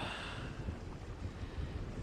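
running water

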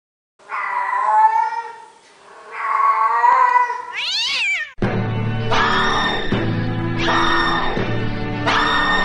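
cat meowing and yowling

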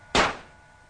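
pistol shots

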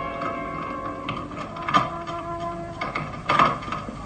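key turning

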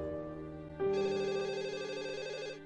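telephone ringing

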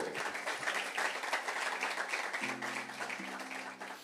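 audience applause

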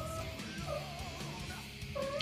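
cat meowing

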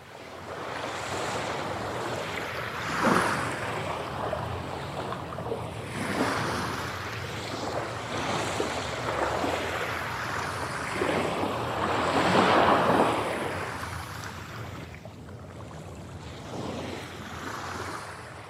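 ocean waves breaking

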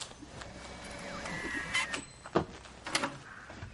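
door opening

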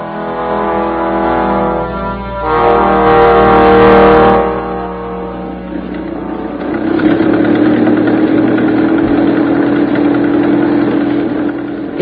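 car engine idling

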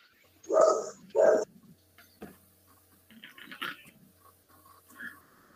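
dog barking

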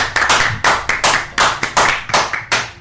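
applause

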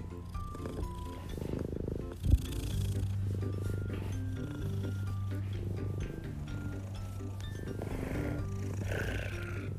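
cat purring

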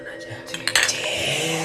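glasses clinking

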